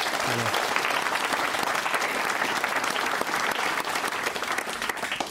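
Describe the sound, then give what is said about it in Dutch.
Sustained applause from a sizable audience, a dense, steady wash of clapping that stays loud and even for several seconds without letting up. “Geef hen maar een staverend applaus.”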